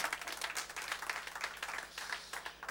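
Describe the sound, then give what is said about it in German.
An audience in Austria applauds steadily for guests from Hamburg seated in the front row, many hands clapping in a dense, continuous patter that stays at an even, moderate loudness throughout the short stretch. “Äh, und äh, geben wir ihnen einen Applaus.”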